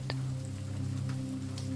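Steady rain patters on a hard surface, a continuous close hiss with scattered drips and one sharper tap near the start, over a low droning hum. No one speaks.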